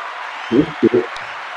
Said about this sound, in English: why the applause, you ask? Why the applause?